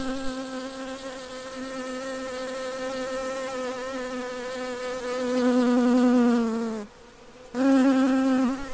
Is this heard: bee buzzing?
yes